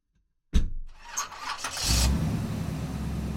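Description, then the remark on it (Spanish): A pickup truck engine cranks with a few quick stuttering turns, then catches and settles into a steady rumbling idle as the truck sets out in the early morning hours toward the Magdalena River near Barranquilla. No one speaks. “Nosotros salimos para allá en una camioneta en la madrugada.”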